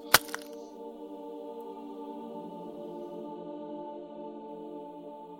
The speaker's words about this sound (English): There's the sound of a cracking uh, from inside the hand that's holding Morana's glass.